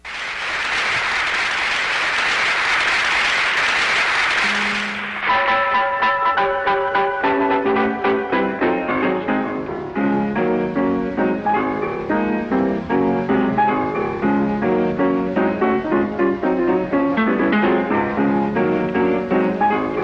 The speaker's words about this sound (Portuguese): A gente está ouvindo aí ao piano. Em agosto de 1931, né, que o Nelson Walter nos traz essa gravação